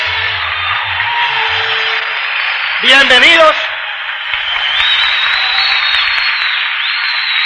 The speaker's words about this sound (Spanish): Vamos a ver a todos los nuevos, pónganse de pie. Vamos a dar un fuerte aplauso de bienvenida. Bienvenidos a todos ustedes.